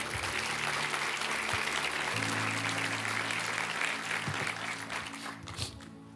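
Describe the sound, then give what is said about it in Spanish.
A church audience applauds the word of the Lord after a prayer, steadily for several seconds, a dense wash of clapping over low sustained keyboard chords, with the applause thinning and fading toward the end. “Le damos un aplauso a la palabra del Señor, ¿te parece?”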